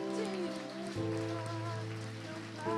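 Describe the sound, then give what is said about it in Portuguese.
An audience applauds the Lord loudly, a dense, steady wash of many hands clapping that continues throughout, with sustained keyboard chords holding underneath and shifting once partway through. “Em nome de Jesus, aplauda bem forte ao Senhor agora, o mais forte que você puder.”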